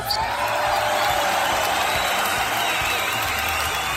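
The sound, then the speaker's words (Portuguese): A crowd breaks into steady, dense applause for a contest winner, mixed with cheering and a few whoops, a continuous loud wash of clapping that holds evenly for the full few seconds. “Muito bom, uma salva de palmas para tá ele.”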